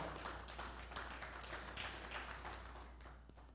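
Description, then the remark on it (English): An audience at a church service claps for the worship team and tech team in a dense, steady wash of many overlapping hand claps that carries on evenly for several seconds, then thins slightly toward the end. No one speaks. “You can give them a hand clap.”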